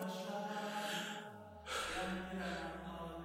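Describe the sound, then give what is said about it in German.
Heavy, labored breathing from a man pondering a question, with audible gasping inhales and sighing exhales, fairly loud, over a steady tonal hum in the background. “Er atmet schwer, aber es kann nur eine Antwort geben.”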